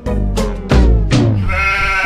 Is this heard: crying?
no